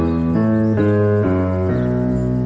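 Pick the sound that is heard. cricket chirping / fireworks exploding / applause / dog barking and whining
cricket chirping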